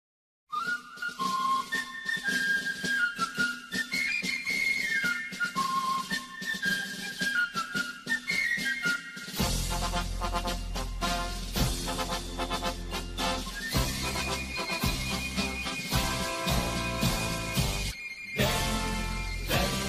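The Cologne goal song plays loudly with no talking: a bright whistled melody opens alone for several seconds, then a full band bursts in with pounding bass and driving drums.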